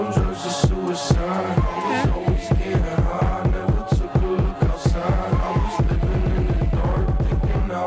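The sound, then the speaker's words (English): A hip hop track with electronic touches plays loud, driven by a steady thumping bass beat under layered synth tones, with the bass shifting into a fast rolling pulse near the end. “It's like uh, hip hop with a little bit of electronic in there.”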